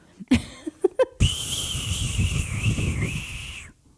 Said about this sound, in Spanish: Enséñele cómo se revienta el silbador. Ese es el silbador.